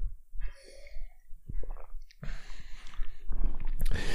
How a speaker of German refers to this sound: Ich muss immer Wasser trinken, warte.